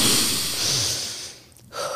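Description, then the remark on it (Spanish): A deep breath drawn in and then let out, airy and fairly loud, with a brief pause before the exhale starts again at the end. No talking. “Vamos, respira conmigo.”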